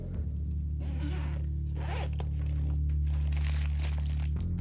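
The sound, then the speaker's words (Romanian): A zipper is pulled open on a food delivery bag, followed by crinkling and rustling as the bag is handled, over a steady low hum with no talking. “Vezi, uite, scrie și pe pungă, șarpe.”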